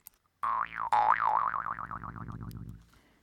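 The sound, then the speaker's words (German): A jaw harp twangs with a wobbling, boing-like pitch that sweeps up and down in quick waves, starting strong and gradually fading over a few seconds. No voices. “Also in dem alpinen Raum ist, in der Schweiz sagt man Trümpli dazu.”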